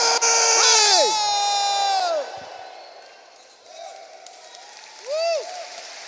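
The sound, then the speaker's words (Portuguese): An audience, asked to give its most joyful shout on a count of three, bursts into loud, joyful shouting and cheering for about two seconds, then fades to scattered whoops, with one last rising cheer near the end. “This morning, can I hear your most joyful shout?”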